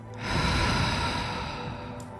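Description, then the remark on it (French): A single long, forceful breath pushed out through the mouth to release tension in a relaxation breathing exercise, after holding the breath and tensing the pelvis and buttocks; breathy, swelling quickly and then slowly tapering over about two seconds. No talking. “Soufflez pour chasser vos tensions inutiles.”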